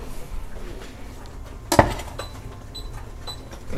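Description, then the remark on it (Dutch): A wok is set down on a stove, to warm some food, with a single sharp metallic clank, followed by a brief faint ringing over a quiet low background hum. “Dus ik ga een wok op de pan doen.”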